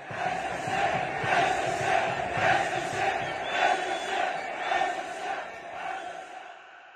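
A large crowd in a Moroccan stadium chants a slogan in unison, voices rising and falling in a steady repeating rhythm, loud and continuous throughout before easing slightly at the end.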